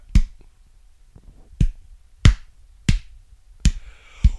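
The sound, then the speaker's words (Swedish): A single person claps slowly after a film screening ends in silence, five sharp, distinct claps spaced unevenly with pauses between them, fairly loud, like a lone, hesitant round of applause. No one speaks. “Och så började en annan liksom så här applådera.”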